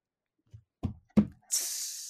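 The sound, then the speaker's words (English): A few short, breathy vocal bursts lead into a sustained, bright hiss made by a voice imitating a snake, mimicking the Globo Gym Purple Cobras from the film Dodgeball. It is fairly loud, with no talking. “I just can't help but think of the Globo Gym Purple Cobras and when they go, tss, and so every time, so I just anytime I hear like like True Buzz saying like Buzz or whatever they do, I just can't.”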